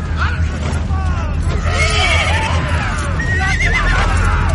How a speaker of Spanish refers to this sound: Él avanza entre los guerreros. Se abre paso empujando a los caballos.